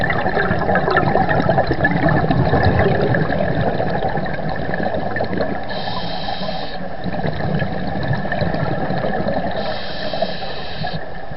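Steady, muffled underwater rumble in the Bosmolenplas lake during a dive by two divers on a rainy day, with gurgling and bubbling water, continuous and fairly loud throughout, with brief hissing bursts like exhaled air bubbles now and then. No voices.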